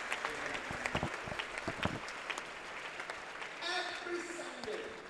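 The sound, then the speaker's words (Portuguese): An audience at a church service claps together, a dense, steady patter of many hands filling the space from start to finish, with a voice rising above the clapping toward the end. “Eu não consigo ouvir seu seus palmas.”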